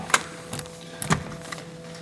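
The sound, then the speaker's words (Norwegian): Door number three opens with a sharp latch click as someone goes in through it, then a duller knock-like thunk about a second later, quiet, over a faint steady hum with no voices. “Sånn, da går vi inn gjennom dør nummer tre.”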